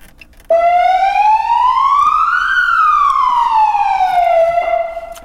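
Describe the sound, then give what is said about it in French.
A loud ambulance siren sounding alone: one slow wail that climbs steadily in pitch, peaks, then glides back down, with no voices over it. “Tu C'est la sirène Ouais.”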